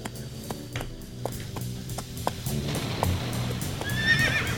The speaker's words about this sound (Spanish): mira, ahí va el caballo, ya cansado.